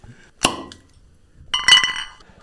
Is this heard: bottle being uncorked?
yes